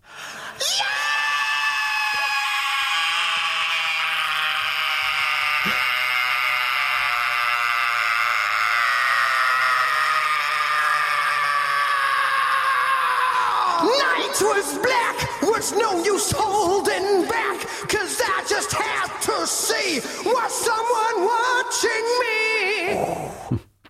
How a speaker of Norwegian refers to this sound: Her er mye energi. Utrolig. Jeg lurer på om det var ett opptak. Jeg greide han å holde det skriket så lenge?